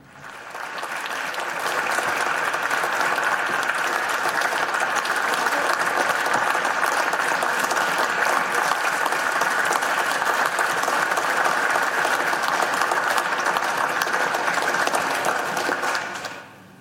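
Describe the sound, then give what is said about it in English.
Sustained applause from a large crowd on the Senate floor, a dense steady clatter of clapping that swells in over the first second or two, holds loud for about fourteen seconds, then fades. “We just heard the applause, but tell us what's happening.”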